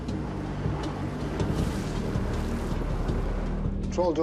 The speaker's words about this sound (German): Die Drift der Wellen wird immer stärker. Die Boote kommen selbst mit voller Kraft kaum von der Stelle.